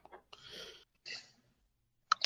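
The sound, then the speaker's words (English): A person in Colorado coughs in several short, rough bursts with pauses between them; the final pair at the end is the loudest and harshest. “No wonder you're coughing.”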